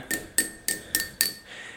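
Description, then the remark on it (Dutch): Five crisp taps on a drinking glass with many ridges in it, in quick, fairly even succession, each with a short bright ring, moderately loud with no voices. “ja, het doet het niet zo lekker, dit glas. Ik heb een glas met heel veel van zo'n groeven erin.”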